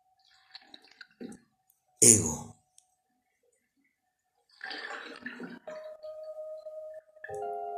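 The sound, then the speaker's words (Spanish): Water sloshes in a jacuzzi as a person sitting in it moves the water: one sudden loud splash, a pause, then a longer stretch of churning and lapping water, with a voice murmuring in the background. “Por eso sí que muevo el agua.”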